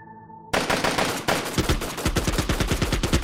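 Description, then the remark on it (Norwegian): Loud, rapid bursts of automatic rifle fire from several Kalashnikovs, shot up into the sky, crack out in quick succession. The volleys run together in a dense, rhythmic rattle after a brief quieter moment at the start. “Det smalt kraftig. Gjentatte skuddsalver fra flere kalasjnikover ble skutt opp mot himmelen.”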